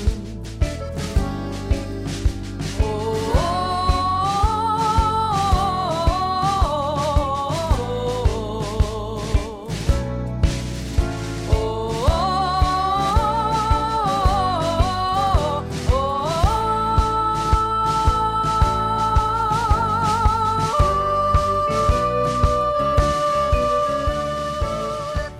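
A choral rendition of the French Resistance anthem of the Second World War, played on Radio Tarrodez, carries a slow, mournful melody with wavering held notes, backed by a steady pulsing accompaniment, loud and continuous from start to finish.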